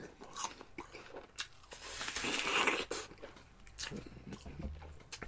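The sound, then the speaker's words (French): A loud, crisp crunch as teeth bite into a Honeycrisp apple, followed by several wet crunching chews, with no talking. “Elle porte pas le nom crisp dans son nom pour rien. Oh, oh, oh. Hmm. Très crispy.”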